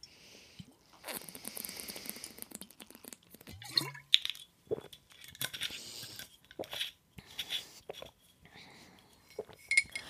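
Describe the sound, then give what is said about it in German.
Glassware sounds: a few light clinks and taps as a drinking glass is handled, followed by soft slurping sips and small swallows, with quiet rustling between them. “Ich muss irgendwas trinken. Prost.”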